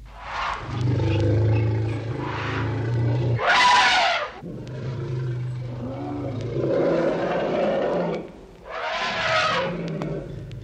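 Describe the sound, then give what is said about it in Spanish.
An enraged elephant roars loudly: deep, sustained growling rumbles broken by two harsh, brassy blasts, with no voices alongside. “Tremendo es el elefante enfurecido, y por manso que sea en sus prisiones, siempre le llega, cuando calienta el sol mucho en abril o cuando se cansa de su cadena, su hora de furor.”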